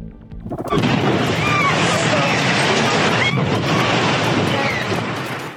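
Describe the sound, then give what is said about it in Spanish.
A sudden loud blast from a tanker truck explosion at a gas station in Tula, Hidalgo, erupts after a brief quiet moment, then a dense, continuous roar persists for several seconds amid flames, with faint shouting voices. “estuvo en medio de las llamas y explosión, el infierno en el que se convirtió la gasolinera de Tula Hidalgo hace dos semanas.”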